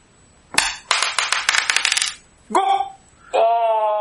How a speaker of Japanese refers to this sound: はい、じゃあ、運命のサイコロタイム